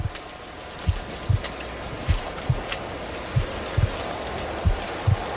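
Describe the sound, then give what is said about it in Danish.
Steady rain pours down onto a road where a small deer lies, a broad hiss punctuated by soft low thuds at irregular intervals. No voices are present. “En lille hjort liggende i en pøl af blod på vejen med regn slaskende ned på kroppen.”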